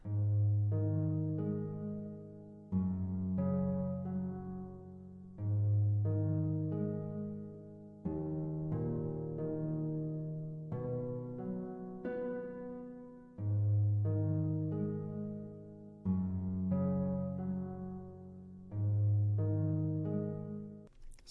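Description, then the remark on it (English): A plucked harp plays rising arpeggios of the tonic and dominant triads, alternating between the two chords in a steady, repeating pattern, the notes ringing and overlapping, clear with no voices. “It's just playing the tonic and dominant um, upward arpeggios of the triads.”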